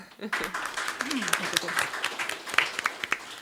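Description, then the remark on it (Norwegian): A crowd applauds the plan to start a new Feministisk initiativ local chapter in Vestfold, steadily, dense overlapping claps with sharper individual hits standing out, moderately loud, with a voice briefly audible underneath. “Ja, det syns jeg vi skal klappe for.”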